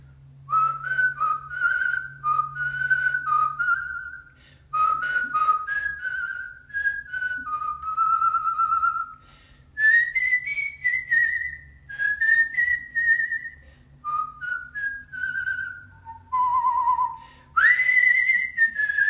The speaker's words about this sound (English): So I'm going to whistle. ….